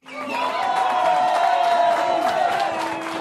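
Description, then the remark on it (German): A canned burst of applause with a cheering crowd and whoops, played in by one of the hosts himself, holding steady and fairly loud for about three seconds before it cuts off. “Man muss dazu sagen, diesen Applaus spielt sich Danny jetzt selber.”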